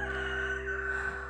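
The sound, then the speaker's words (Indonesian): A rooster crows in one sustained, strained note that holds steady before trailing off, moderately loud, with no one talking. “banyak faktor kayak suara ayam, suara motor”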